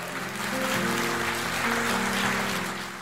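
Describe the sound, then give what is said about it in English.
An audience gives a clap of praise in a steady, dense wash of clapping that holds loud for about three seconds, with sustained low keyboard chords sounding underneath. “clap of praise this morning?”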